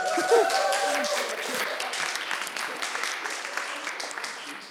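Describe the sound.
A crowd applauds a participant who answered a question, a steady dense wash of clapping at even loudness for several seconds, with a few faint voices murmuring underneath early on.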